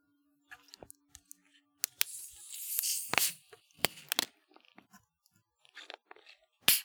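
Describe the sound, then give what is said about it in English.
Drink cans being cracked open: a few sharp metallic clicks and pops, then a hissing fizz that lasts about a second, followed by more scattered snaps and a final loud crack. “Let's crack these bitches crack open. Them open.”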